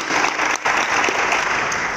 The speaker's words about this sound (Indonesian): Mari kita semuanya memuliakan Tuhan kita luar biasa. Amin. Kita berikan tepuk tangan bagi